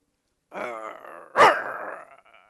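An angry dog snarls with a low, rumbling growl, breaks into one sharp, loud bark, then keeps growling more quietly, with no talking.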